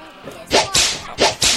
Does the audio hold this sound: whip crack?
yes